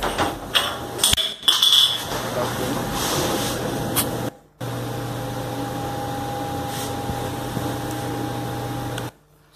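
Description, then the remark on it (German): A few clattering knocks at the start, then an alarm siren, set off by a door opening, blares as a steady, unwavering tone, cuts out briefly midway, and resumes until just before the end. “Also wenn es jetzt aufmacht, sollte dann die Sirene losgehen. Ihr hört es sogar.”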